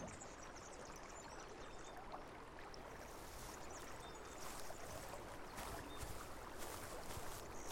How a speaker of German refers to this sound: Nach einer Weile kommst du an einem kleinen Bach vorbei, der sich durch die Wiese schlängelt. Sein klares Wasser plätschert sanft über glatte Steine und bildet kleine Wasserfälle.